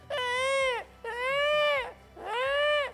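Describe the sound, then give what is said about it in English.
A voice imitates a dying rabbit's cry to call a coyote: three loud, high-pitched wailing squeals, each rising and then falling, separated by short pauses, with no talking. “You know how to call a coyote? Act like a dying rabbit.”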